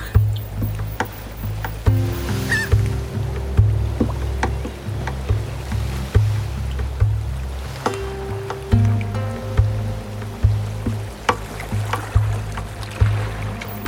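A small anchored boat creaks, sways and tugs lightly at its anchor line on gentle sea waves at sunset, with steady water lapping against the hull, low rumbling tones and occasional sharper knocks, continuous with no voices.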